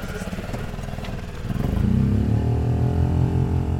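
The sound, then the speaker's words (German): A small outboard boat motor clatters and chugs steadily after several start attempts, its rattling rhythm growing louder and fuller after a moment as it settles into running, prominent. “Nach einigen Versuchen und Hin- und Herfunken mit dem Techniker Samuele knattert der Motor dann vor sich hin.”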